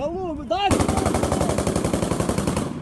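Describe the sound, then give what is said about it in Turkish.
A brief shouted voice, then a loud, dense burst of rapid automatic gunfire with overlapping shots that continues steadily to the end, intense, as Ukrainian soldiers ambush 5-6 vehicles with rocket launchers in Kharkiv. “Ukrayna askerlerinin onlara kurduğu pusunun sesleri, roket atarlarla 5-6 aracın hedef alındığı sahne, bir binanın köşesini siper etmişler.”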